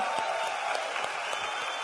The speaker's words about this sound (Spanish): y eso fue gracias a Gloria, para la que hoy pido un fuerte aplauso.